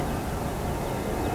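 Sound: airplane taking off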